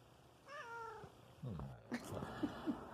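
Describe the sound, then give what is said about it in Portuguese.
A cat lets out one drawn-out, wavering meow, followed by a lower, brief grumbling sound and a few soft knocks. “Nem os bichinhos têm mais respeito por você, já sabe dos seus podres, hein,”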